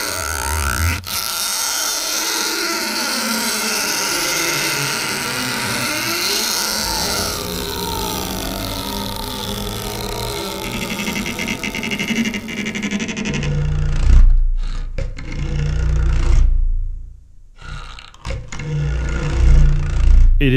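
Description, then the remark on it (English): A deep, gritty roar of bowed cactus needles slowed and pitched down, grinding and rasping continuously with shifting tones, swelling into heavy rumbling bursts and brief gaps near the end. “really difficult to find the types of cactus that actually make the sound.”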